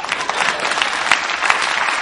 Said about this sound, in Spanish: Damos un aplauso a mi mamá, por favor.